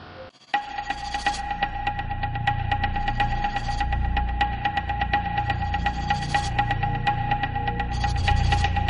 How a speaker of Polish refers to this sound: Syrena DSE, aktualnie montowana na ulicach polskich miast. Natężenie w bezpośrednim sąsiedztwie do 130 dB. Użyta jako broń dźwiękowa może wywołać pęknięcie bębenków usznych, krwawienie ucha wewnętrznego, powstanie tętniaków i śmierć.